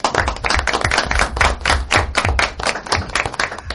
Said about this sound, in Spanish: Así que por ese esfuerzo, yo voy a pedir, aunque estemos en la radio sin hacer, sin tocar mucho la mesa, un aplauso para ellos, que han venido para acá.